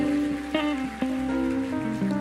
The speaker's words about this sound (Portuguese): A paz do Senhor, igreja. Vamos louvar o Senhor com as nossas palmas. Aleluia.